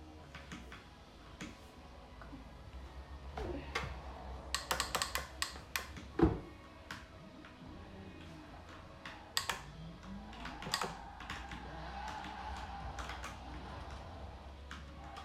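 Computer keyboard keys clatter in irregular bursts, fairly quiet, with scattered single presses between quick flurries over a low steady background hum.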